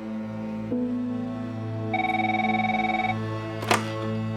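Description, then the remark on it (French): A telephone rings once with a rapid trilling bell tone lasting about a second, over a steady low hum and background music, followed by a short clunk like a receiver being lifted; a call to the London police from a journalist of the tabloid The Sun. “La police londonienne reçoit un appel d'un journaliste du tabloïd The Sun, Alex West”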